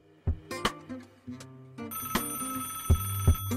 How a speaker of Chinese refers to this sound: 您有一个插播来电。